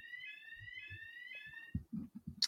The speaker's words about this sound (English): And apologies if you heard the fire alarm test going.